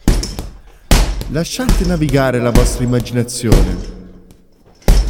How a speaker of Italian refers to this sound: Nella sua cucina sta preparando il suo sandwich. E shh, ha deciso di applicarci il suo timbro. Questo ragazzo prende a pugni il panino.